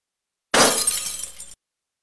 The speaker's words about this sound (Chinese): 啪的一声，是桌面杯子被扶到地上的声音。